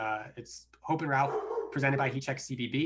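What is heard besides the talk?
dog barking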